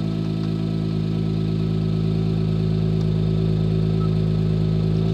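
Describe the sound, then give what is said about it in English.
A car engine, switched from quiet mode into race/track mode, runs steadily at a loud, constant idle with a deep rumbling drone and no revving, with no voices present. “So it's in quiet mode now. And I rev it, so it's very quiet. Now, if I put in race mode,”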